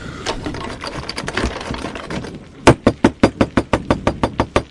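A door is slammed and then rattled hard, a rapid run of about a dozen sharp, evenly spaced knocking bangs following a stretch of muffled shuffling noise, loud and close.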